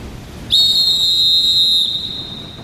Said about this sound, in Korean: 예, 내가 호각을 불 테니 깃발을 흔들어서 함선의 돌격 신호를 보내라.